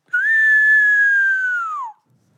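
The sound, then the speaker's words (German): A single long whistled cry imitating the falcon from the intro of Die drei Fragezeichen, about two seconds: a clear, steady mid-high tone that rises slightly at the start, holds, then glides downward as it fades out. No talking. “ist eigentlich der Falke in dem Intro?”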